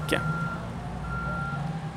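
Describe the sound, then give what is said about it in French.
A truck's reversing alarm sounds in steady, drawn-out electronic beeps over a low rumbling engine, with a brief chirp at the start and no one talking. “Claude Paquin vissa 12 grosses roues sur la bête, fit venir trois, quatre gros camions, puis un paquebot, et trois, quatre autres gros camions une fois de l'autre côté de l'Atlantique.”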